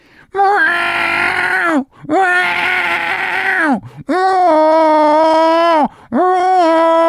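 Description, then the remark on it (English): A person imitates their cat howling at the vet: four loud, drawn-out, strained vocal wails with steady pitch that dips at each end, separated by brief pauses, no other voices. “I take him to the vet. He's howling, howling.”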